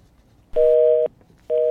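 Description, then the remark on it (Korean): Two steady electronic beeps of a phone hang-up tone, each about half a second long with a short gap between, loud and clear with nothing else audible, played on a radio show as the day's treasure-hunt sound. “네, 전화 끊기는 소리죠. 네, 뚜, 뚜, 한번 더요.”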